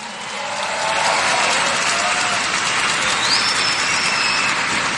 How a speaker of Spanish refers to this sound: Hablando de liderazgo, vamos a, darle un fuerte aplauso a todas las personas que hacen que este evento sea posible.